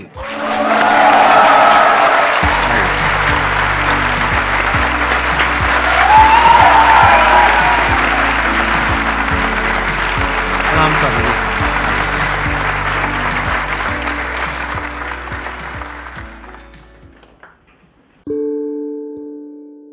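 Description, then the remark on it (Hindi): Loud, sustained applause from an audience welcoming a guest, Swami Prakashanand ji, dense clapping with a few scattered whoops, swelling briefly midway and fading out after about seventeen seconds. Steady low musical tones play underneath, and a short chime follows at the end. “please give an energetic and warm welcome to the one and only Swami Prakashanand ji”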